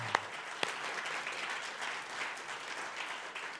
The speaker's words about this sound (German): Und wie wäre es, wenn wir unserem Gott mal einen Applaus geben würden. Wirklich, von ganzem Herzen her.